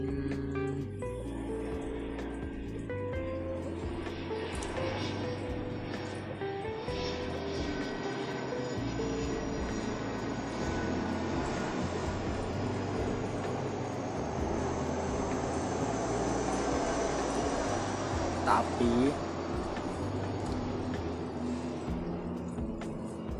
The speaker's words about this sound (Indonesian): sorry ada pesawat lewat